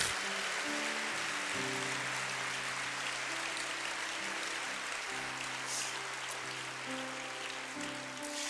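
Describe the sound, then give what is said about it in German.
Sustained audience applause, a dense wash of clapping that stays steady and loud for the whole stretch, with soft sustained music tones playing underneath. “Können wir Helsermeer Applaus geben?”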